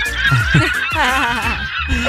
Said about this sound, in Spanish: Y mira esa gaviota que va allá. Trujillo, ah, qué bonita, mira. Ay, lleva un pescado, mira.